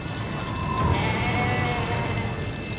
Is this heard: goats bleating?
yes